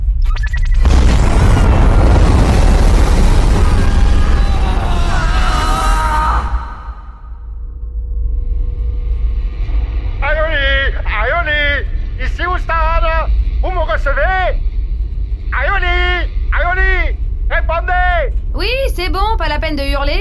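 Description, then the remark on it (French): A massive, sustained roar of rocket main engines and boosters igniting at liftoff fills the first several seconds, deep and rumbling, before it fades out and a man begins speaking over a lingering low hum. “Allumage des moteurs principaux. Allumage des propulseurs. Allumage des propulseurs Ça veut dire qu'on décolle, ça”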